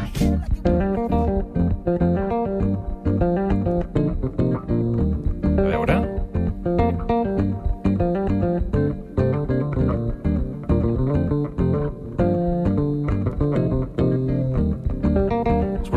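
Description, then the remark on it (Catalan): A bass guitar plays a cover of a hit electronic pop song, the whole tune performed only on bass, with steady rhythmic plucked notes and chords that fill the whole stretch at a loud level, with no voices. “O, per exemple, amb 45.000 visites per aquesta versió, que és una cançó electrònica d'èxit, però ell la fa d'aquesta manera.”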